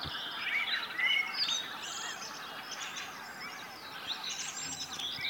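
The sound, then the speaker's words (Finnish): A spring dawn chorus of many birds at Lake Hyvelänjärvi, with overlapping high chirps, trills and whistles filling the air continuously at moderate volume over a soft, steady background hush. No one speaks. “ainakin yksi kevätaamu kannattaa valvoa lintujen konserttia kuunnellen”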